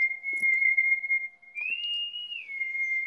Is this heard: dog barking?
no